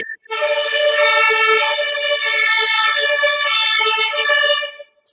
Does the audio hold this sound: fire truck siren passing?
yes